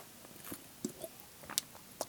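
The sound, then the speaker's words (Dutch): A quiet first sip of an AA energy drink: a handful of soft, wet mouth clicks and a short slurping burst scattered over two seconds, with no talking. “Dat was de eerste slok die ik nam van mijn AA.”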